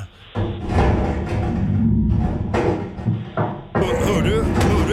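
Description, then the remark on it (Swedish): A bull moose thumping around inside a laundry room, with heavy, muffled bumps and scraping noises that come loud and irregular, with brief pauses between bursts. “Älg I Tvättstuga”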